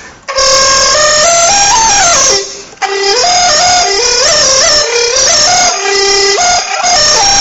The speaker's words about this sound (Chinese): 花舌下一个，花舌就是把这个气流给打碎了，就是比如说在很多俄语、德语的时候，你会有这种声音，就这种音就是花舌，比如说。